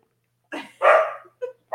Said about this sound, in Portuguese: Ele late alto demais, gente. Armaria, ah, armaria. Ah, é um cachorro tenor.